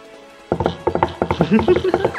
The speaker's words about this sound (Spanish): Ha sonido de caballos.